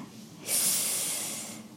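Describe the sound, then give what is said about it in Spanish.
A single sneeze bursts out abruptly, a loud, breathy spray of hissing air that lingers for about a second before fading. No one speaks during it. “Salud.”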